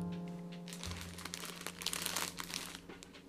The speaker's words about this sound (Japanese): 今の音は何かっていうと、その、あの、あの、全身をビニール袋にしたっていう、全身ビニール袋製にしました。